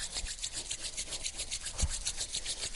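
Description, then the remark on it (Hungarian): Palms rub briskly together to make them hot during a guided relaxation exercise, in a steady back-and-forth rhythm, each stroke a dry, raspy swish of skin on skin, repeated many times with no one speaking. “Tudatosítsd a kéztartásod, a namaste kéztartását, és kezd el összedörzsölni forróra a tenyereidet, majd fűzd össze a kézújjaidat, azokat is dörzsöld össze, és végezetül az új vegyeket is.”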